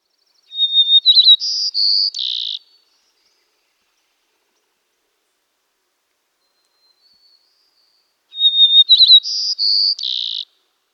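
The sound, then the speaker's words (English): A White-crowned Sparrow sings twice, clear, each song opening with a high whistled note that breaks into quick trills and ends in buzzy notes, with a long silence between the two songs. “The White Crowned Sparrow song always starts with one sometimes two monotone whistles.”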